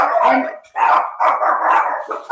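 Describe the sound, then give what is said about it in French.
Small dogs, just woken and excited as children arrive home from school, bark loudly in a rapid, overlapping flurry, yappy bursts following one another with barely a pause and no talking in between. “J'ai des petits chiens.”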